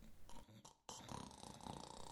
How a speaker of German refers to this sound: Ich vernahm ein leises Schnarchen. Sie war endlich eingeschlafen.